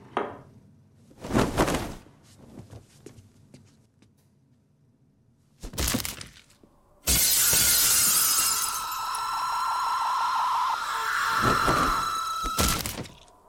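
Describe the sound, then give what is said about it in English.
Window glass shatters in a loud crash that rings and showers on for several seconds, preceded by a couple of sharp thuds and impacts, with no voices; a film scene in which a witch throws Monica out of a dormitory window. “La strega sorprende Monica nel sonno e la lancia fuori dalla finestra del dormitorio.”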